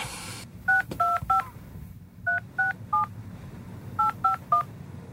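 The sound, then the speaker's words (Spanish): A phone number being dialed to call the press office of PP candidate Rueda during the Galician election campaign: nine crisp touch-tone beeps in three quick bursts of three, each a paired-tone chirp, clear over a faint low background hum. “A ver, que lo vuelvo a llamar.”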